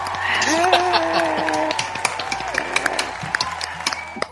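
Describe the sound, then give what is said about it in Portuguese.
A round of applause: dense clapping mixed with raised voices at first, thinning out to a few scattered, separate claps toward the end. “Foi uma salva de palmas agora.”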